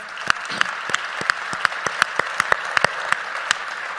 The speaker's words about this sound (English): And last, I want to thank all the people that walked around and helped other folks, so if we could give them a quick round of applause yes.